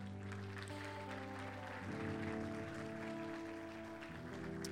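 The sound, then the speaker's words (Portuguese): An audience claps for Jesus steadily in a dense, continuous wash of applause, while sustained keyboard chords play underneath and shift partway through. “Aplauda Jesus por isso.”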